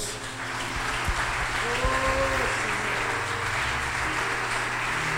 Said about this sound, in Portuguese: Vamos aplaudir o nosso Deus.